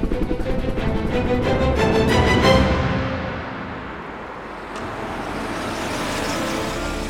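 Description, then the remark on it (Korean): A luxury car's engine rumbles loud at first, then eases down and settles into a steady idle as the car pulls up and comes to a stop in a police station parking lot, with no voices. “허약한 모습의 조직원 호운이 체포되어 있는 경찰서 주차장에 고급 승용차가 멈춰선다.”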